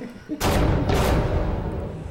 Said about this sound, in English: That's the law. That's the sound of the long gavel of the law coming down.